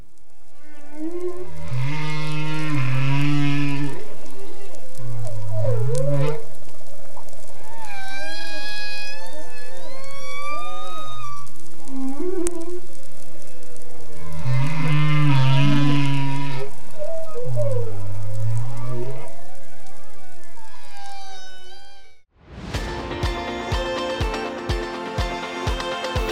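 Loud whale song: long moaning tones, rising and falling whoops and squeaky upsweeps repeating in phrases for about twenty seconds, then an abrupt cut to a different, busier sound.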